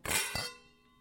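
Glasses of a 2017 Georges Noellat Bourgogne Rouge red wine clink together twice in a toast in quick succession, bright, the second tap followed by a clear ringing tone that fades away over the following moment. No one speaks.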